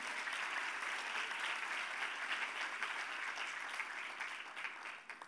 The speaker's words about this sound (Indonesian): Berikanlah tepuk tangan yang meriah bagi Bapak kita yang baik ini.